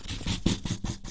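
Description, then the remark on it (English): A marker squeaks and scratches across paper in a few quick strokes as a woman draws, a soft rhythmic rasp with no voices. “And now a marker.”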